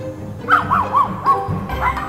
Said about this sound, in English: then there's the case of the yapping mutts, a desperate homeowner in Fredericksburg, Virginia, slowly driven crazy by the seldom seen but always heard Jack Russell Terriers next door. That's AM. The dogs bark, he pushes record.